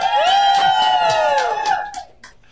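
A small group, a cheering section on a Skype call, cheers and whoops over the call, one long sustained high "woo" riding over scattered shouts and claps before the noise trails off.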